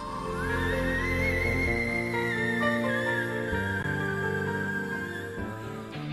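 A coloratura soprano sings in whistle register, sustaining an extremely high, whistle-like note that climbs and then holds steady for several seconds. The note is loud, over a full, rich instrumental accompaniment.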